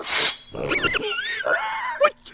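A pig grunts and squeals up close in a quick run of rough, snorting bursts and rising, whiny cries, ending with a final sharp snort. No one speaks.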